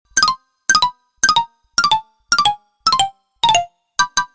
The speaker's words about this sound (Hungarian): Abban a pillanatban megcsörtent a telefon.